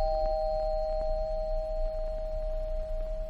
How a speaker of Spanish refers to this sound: En un día como cualquier otro, en el Centro de Atención Primaria a la Salud Sexual de la Merced de Brigada Callejera se escucha el timbre de la puerta.